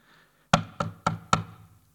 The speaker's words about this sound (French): C'est le chef de la salle d'échange qui a tapé à la porte de la salle de séance de la direction générale de la BNS, qui était dans sa réunion hebdomadaire ordinaire.